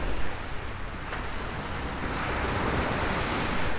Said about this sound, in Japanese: 皆さん聞こえてますねまた波かよとそう波の音しますねここはどこどこでしょう観音崎ですまたねえー、まあ寂しい海岸があるかなと思ったらそうでもなかったというね聞こえますかこの波の音